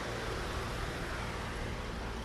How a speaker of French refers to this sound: il y a un bus qui arrive.